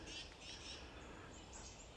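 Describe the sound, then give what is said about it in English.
Thin, very high-pitched brown creeper calls repeat several times against a steady background hiss, faint, heard during a hike. No one speaks. “Um, also hearing a few brown creepers.”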